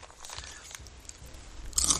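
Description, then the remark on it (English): Someone bites into a hard piece of crunchy food: a few faint crackles, then a loud, sharp crunch near the end, with no talking. “Let me see if I can find one that's really gonna crunch.”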